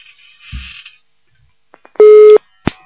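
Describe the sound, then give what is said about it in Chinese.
A telephone busy tone sounds once after a call drops, a loud, steady electronic beep lasting about a third of a second, preceded by a few soft clicks and followed by a sharp line click. “哎呀，这电话真有问题。喂，你好。哎呀，跳掉了。”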